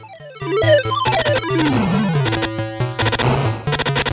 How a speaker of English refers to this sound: By the way, listen how hard this music goes at the end. Hold on.